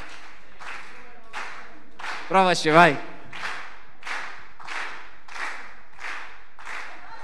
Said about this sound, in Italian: Proviamolo, accompagniamo con l'applauso al ritmo, al ritmo però.